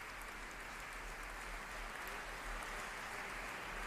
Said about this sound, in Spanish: Continúa ese aplauso en la Catedral del Buen Pastor de San Sebastián.